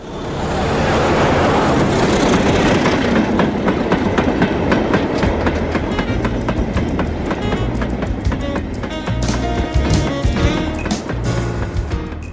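A train rolls steadily along the rails, loud, its wheels beating out a repeated clickety-clack over a constant rumbling roar. No voices are heard.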